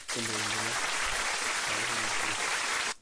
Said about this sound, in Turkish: O zaman e, sevgili Türk dostlarımıza bir alkış